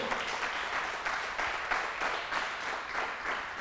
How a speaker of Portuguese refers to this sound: Dá um aplauso aí, ó.